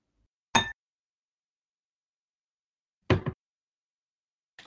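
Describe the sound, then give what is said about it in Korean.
A few sharp glassy clinks, spaced a couple of seconds apart, as glassware knocks together while a Malibu pineapple cocktail (Malibu mixed with pineapple juice) is being mixed. Silence between the hits, with no one talking. “이거는 말리부에 파인애플을 3 섞으면 되는데 파인애플 주스를 얘기를 하는 겁니다. 한번 섞어볼게요.”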